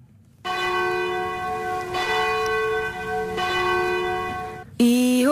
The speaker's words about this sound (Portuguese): Ouço o sino a tocar, acabou a hora, o preço a dobrar.